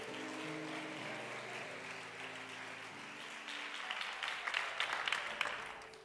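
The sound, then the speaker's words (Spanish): A church audience applauds in worship of God, clapping steadily over sustained keyboard chords, the clapping growing louder and more scattered in its second half as the music fades away. “Gente que no diezma no sabe aplaudir.”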